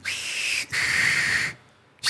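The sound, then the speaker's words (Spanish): Someone whistles a short tune imitating the Saviors' whistle that comes before Negan appears: two sustained, clear notes with a brief gap between them, a pause, then the start of a third note. No one speaks. “Y el chiflidillo.”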